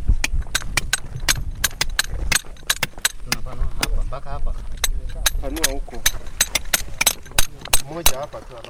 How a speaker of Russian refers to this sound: И это стучат молотки, с помощью которых охотники за костями выкапывают у меня на глазах древнего бегемота.